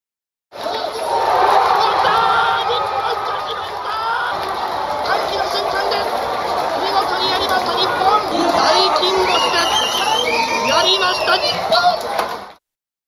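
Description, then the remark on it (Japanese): A large crowd roars and cheers continuously at a football public viewing in Tokyo at the moment Japan beat Germany 2-1 at the 2022 World Cup in Qatar, a loud, dense wall of shouting and screaming voices that stays intense for about twelve seconds. “日本代表勝利の瞬間、東京都内で行われたパブリックビューイングでの大歓声”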